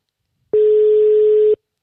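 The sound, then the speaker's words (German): A single steady electronic telephone ringback tone sounds for about a second during an outgoing call, a clean sustained beep on the line with nothing else around it. “Hörst du es klingeln? Ja, ich höre es auf jeden Fall klingeln.”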